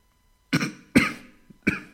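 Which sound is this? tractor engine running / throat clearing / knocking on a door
throat clearing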